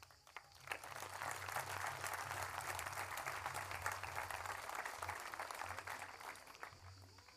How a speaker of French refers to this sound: Vous m'avez applaudi. J'espère que chacun a bien médité l'engagement que ces applaudissements contenaient.